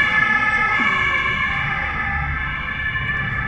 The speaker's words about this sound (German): das Polizeiauto.